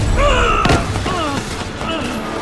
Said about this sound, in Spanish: Durante el tiroteo dispara a dos agentes.